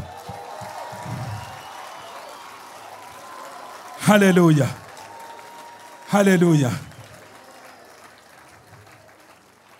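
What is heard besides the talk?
audience clapping hands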